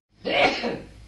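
human body sound, sneeze

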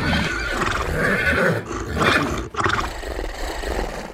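animal, horse neighing

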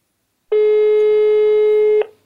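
signal or alarm, mobile phone call tone

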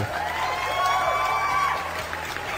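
crowd, applause and cheering

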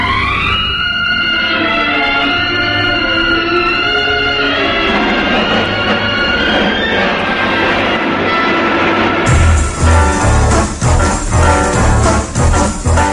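firecrackers going off

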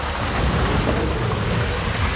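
vehicle, truck driving past

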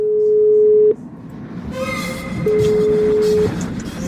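signal or alarm, soft

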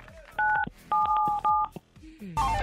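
signal or alarm, telephone keypad dialing tones

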